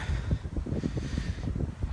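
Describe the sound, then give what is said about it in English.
Wind buffets the microphone in a steady, low rumbling roar with gusty surges, filling the whole stretch without any speech over it. “especially with how windy it is, right?”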